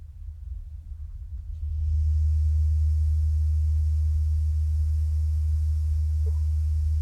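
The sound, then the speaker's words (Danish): A steady, deep test tone hums continuously, and after about two seconds a loud, even hiss of test noise played to a listener joins it, interfering with noise coming from outside, and holds steady to the end. No one speaks. “Det, man, det jeg kan høre nu, jeg kan høre en interferens mellem den støj, jeg spiller for dig nu, og så den udefra kommende støj.”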